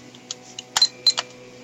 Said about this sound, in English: um, I can hear your typing. I don't know if you know that.